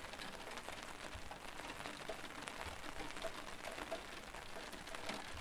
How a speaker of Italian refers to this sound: È il 17 giugno 2020. L'estate è in arrivo, ma fuori c'è il temporale. Per ripararmi dalla pioggia mi sono rifugiata in una libreria.